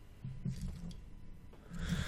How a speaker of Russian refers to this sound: А, я сейчас, значит, сделаю, выключу звук на компе сейчас, чтобы меня не, не пердели эти вентиляторы. А, Во! Сейчас они еще заглохнут, да?